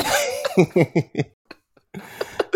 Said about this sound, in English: so it's just coughing in the background.